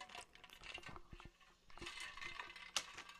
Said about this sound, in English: Okay, I'm sorry if you had to hear me swallow. That's nasty.